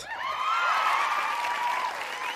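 A steady burst of applause lasting a couple of seconds, a dense even wash of clapping with a bright, wavering whistle-like tone riding over it. No one speaks.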